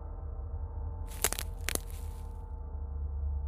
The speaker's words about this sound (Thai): เสียงกิ่งไม้หักทำให้ผมรู้ตำแหน่งของมันเสียงดังมาจากทางหลังบ้าน